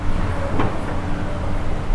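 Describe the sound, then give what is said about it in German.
A large orange excavator's diesel engine drones steadily and loudly as it loads earth from a clay pit into a truck in the Westerwald, with a short scraping clunk partway through as earth is moved. No voices. “Was Sie hier gerade im Hintergrund hören, sind die Geräusche von einem großen orangenen Bagger, der Erde aus einer Tongrube in einen Laster befördert.”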